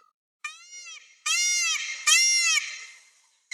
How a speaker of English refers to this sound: See if I can find it really quick. Find us a peacock sound. Come on.